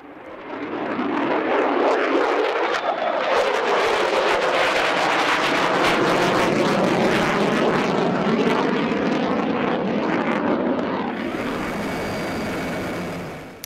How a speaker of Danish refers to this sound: Det her det er lyden af et F-35 kampfly, øh, og sådan her kommer der til at lyde ved flyvestation Skudstrup meget mere i fremtiden. Kampflyene de larmer så meget, at naboerne simpelthen ikke har lyst til at bo der.